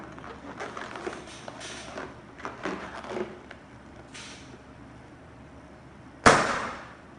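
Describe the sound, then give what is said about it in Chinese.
A blood-sampling lancing pen, set to its first depth setting, fires into a taut, fully inflated balloon in a demonstration, piercing it with a single sharp, loud pop after several seconds of soft rustling and handling noises, then the sound trails off quickly. “这样子它就刺穿了，哎，很容易的就可以采到足量的血。”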